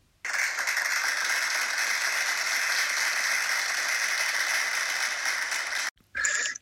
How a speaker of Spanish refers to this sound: Un aplauso para nuestro invitado